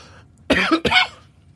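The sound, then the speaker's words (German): Two quick, harsh coughs in close succession, fairly loud, with nobody talking and only faint background noise around them. “Weil manchmal kommt dieses Husten immer hoch.”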